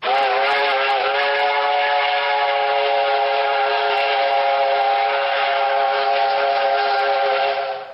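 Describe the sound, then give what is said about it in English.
A steam train whistle sound effect blows one long, steady, loud note with a rich chord of harmonics, holding for about eight seconds before cutting off. No voices are heard. “Train, not Big Thunder Railroad.”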